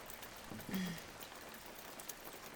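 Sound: rain falling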